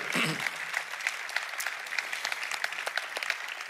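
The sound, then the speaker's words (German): An audience breaks into steady applause, a dense crackling wash of many hands clapping at once that holds at a fairly even level throughout, with a brief voice heard at the very start. “Kannst du das Buch, äh, Applaus, komm, Applaus.”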